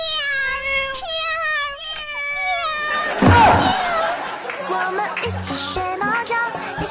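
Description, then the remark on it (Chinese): A stray cat yowls in a string of drawn-out, wavering, high-pitched cries. Midway a brief noisy burst cuts in, then more warbling yowls continue over a busier, cluttered background. “不要看到流浪猫就非要蹭过去，奇怪的嚎叫。”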